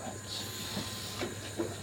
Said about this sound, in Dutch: Ja, dit moet eigenlijk echt alvast koken, zodat die stoom eruit komt, zeg maar. En dan doe je het erboven.